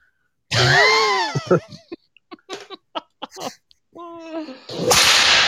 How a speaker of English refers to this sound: Whip is being used an awful lot tonight.